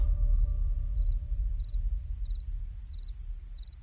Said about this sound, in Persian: روستا در میان نجوای جیرجیرک ها شب آرامی را سپری می کرد.